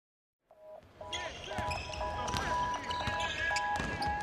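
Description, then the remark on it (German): A basketball is dribbled by an attacker toward the three-point line in a game's decisive phase, its repeated thumps ringing out on a hard court amid sharp sneaker squeaks and the echoing bustle of a lively crowd. “Mit dem Ball dribbelt der Angreifer an die Drei-Punkte-Linie.”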